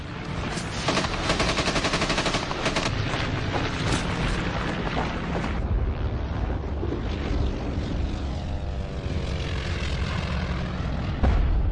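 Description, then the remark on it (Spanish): Rapid bursts of machine gun fire crackle loudly over the steady roar of aircraft engines as planes carrying paratroopers fly over Normandy at night, the gunfire thinning after a few seconds while the droning planes continue overhead. “Las balas pasaban cerca de la cabeza.”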